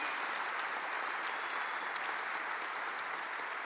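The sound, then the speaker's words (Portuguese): An audience gives the Lord a strong round of applause in the morning, a dense, steady wash of many hands clapping that holds evenly throughout, with no voices standing out above it. “Se você recebe, dê um aplauso bem forte ao Senhor nessa manhã.”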